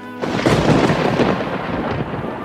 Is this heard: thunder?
yes